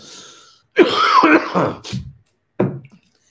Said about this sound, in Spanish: Híjole, voy a toser de nuevo.